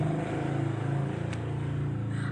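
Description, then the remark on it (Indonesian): A motorcycle engine drones loudly and steadily throughout, a low buzzing hum with a rough, pulsing rasp as it goes by. No one speaks over it. “maaf ada lewat motor”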